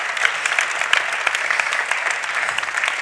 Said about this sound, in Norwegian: Jeg syns dere må gi han en god applaus.